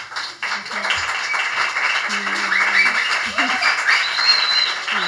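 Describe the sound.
An audience at a tribute concert applauds steadily for about five seconds, a dense, even wash of clapping, with scattered voices and cheers rising over it.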